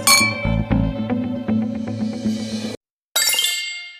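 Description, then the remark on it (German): Glasses clink together in a toast, a bright ringing chink followed by a short pause and then another shimmering clink that rings out, fairly loud with no talking. “Ich auch. Prost.”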